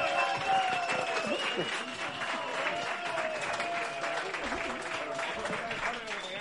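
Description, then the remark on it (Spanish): An audience at the Comedy Con show applauds the comedians steadily for several seconds, a dense, even wash of clapping that holds its loudness throughout, with indistinct crowd voices and cheering mixed in. “Un aplauso para Ignacio Farray.”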